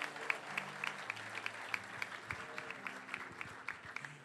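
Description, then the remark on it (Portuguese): A large crowd applauds steadily in worship, praising the name of the Lord at an evening gathering, a dense wash of many hands clapping at once, with a few sharper claps standing out and low sustained tones, like an organ or keyboard, sounding underneath. “Quantos podem adorar, aplaudindo e exaltando o nome do Senhor nesta noite?”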